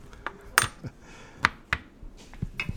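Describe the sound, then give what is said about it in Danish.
Several sharp metallic clicks and clanks as a tin lid pops open, with two brighter ringing pops standing out among lighter taps and rattles. “Nå, jeg popper lige den her. Pop.”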